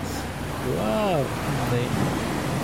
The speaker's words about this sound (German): Vor ihm schlagen die Wellen an den Fels.